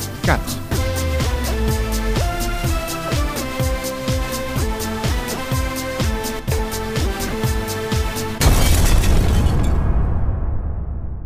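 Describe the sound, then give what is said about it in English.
A short, punchy new radio jingle from Dr. Force: busy music driven by a steady beat of repeated hits for about eight seconds, ending in a loud explosive crash that rumbles and fades away. “Force treats us to another new jingle this morning.”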